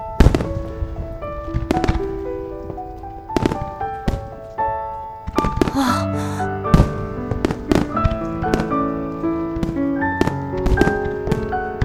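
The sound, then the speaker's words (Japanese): Fireworks launched into a pitch-dark, starless night sky crackle and burst in quick, irregular succession, sharp loud pops scattered throughout, layered over sustained musical tones that ring underneath the whole time. “星もない真っ暗な闇に打ち上がったその光の大輪たちは息を忘れるほどに美しかった”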